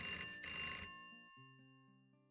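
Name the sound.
telephone bell ringing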